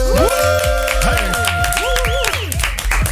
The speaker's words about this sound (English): He doesn't because he's from the Netherlands and he's in the studio with us right now. So, everybody here in the room, make some noise. Melsen in the building.